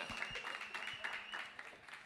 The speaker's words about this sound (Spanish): Otro fuerte aplauso para mis patrocinadores. Grupo Corona.